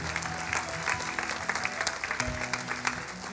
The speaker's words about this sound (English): Come on, give him one last big hand.